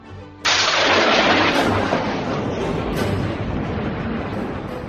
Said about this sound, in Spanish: La salamandra atacaba con mucho ardor, pero la rémora se sostenía impenetrablemente. Cada acometida que se propinaban engendraba un trueno